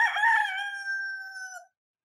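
A rooster crows once, loud, a bright cock-a-doodle-doo that holds a steady pitch for well over a second before cutting off into silence. No voices accompany it.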